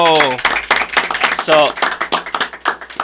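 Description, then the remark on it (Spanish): A burst of applause, rapid irregular claps running steadily throughout, with a couple of high voiced whoops or cheers rising over the clapping near the start and midway. “JTV, un aplauso.”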